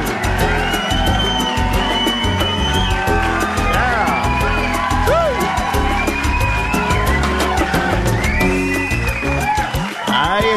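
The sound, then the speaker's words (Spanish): A red-haired man shouts loudly and repeatedly, his yells rising and falling over a dense, noisy crowd with whoops and cheering that fills the whole stretch without letup. “el amigo pelirrojo gritón de Jejo que yo no sé cómo él logra gritar siempre igual”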